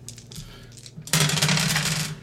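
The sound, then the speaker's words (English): A soft rattle of three dice shaken in a hand, then a louder burst of clattering as the three dice (one drama die, two regular) tumble across a hard tabletop for about a second, rolled for a game check. “So roll three dice for me, please.”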